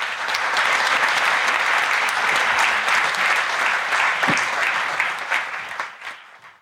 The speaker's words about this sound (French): Soyez les bienvenus et je vous demande de les applaudir et de les encourager.